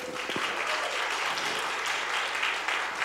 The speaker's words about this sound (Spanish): Un aplauso para, para sus diamantes.